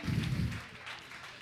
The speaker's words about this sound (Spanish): Muchas gracias, un aplauso para ustedes por ser un público increíble